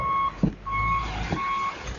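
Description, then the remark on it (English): A front end loader's reversing alarm sounds a steady, high-pitched beep that repeats in long pulses over a low, rumbling engine, with a couple of dull thumps in between, as the loader backs up and charges into a mountain of plastic bottles, jugs and jars, its giant wheels crushing the plastic. “The driver shifts gears and his front end loader plows into a mountain of plastic bottles, jugs, and jars.”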